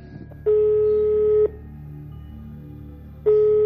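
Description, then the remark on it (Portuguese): A phone call to a home landline rings out through the earpiece: a steady electronic ringback tone sounds for about a second, falls silent for nearly two seconds, then starts again, with no one talking. “Você pode ligar pro telefone fixo da sua casa. Tá. Eu vou ligar então.”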